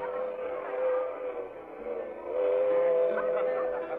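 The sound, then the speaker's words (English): A moving train on the way to Westchester rumbles steadily throughout, a continuous rolling clatter with a faint whistle-like tone running through it, even in loudness. “After a couple of hours on the train, Bob produced a guitar.”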